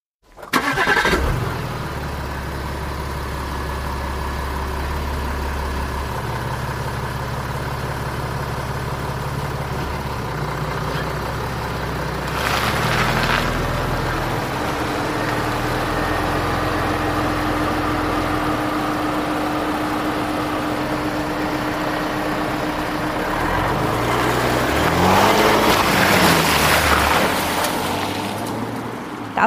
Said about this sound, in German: klingt wirklich nach Gas geben